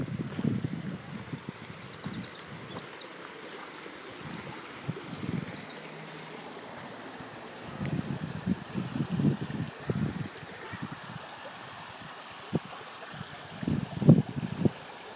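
A river around the edge of a park flows steadily, heard while walking beside it under gusty wind, with soft low thuds scattered throughout and a few faint, high bird chirps early on; no one speaks.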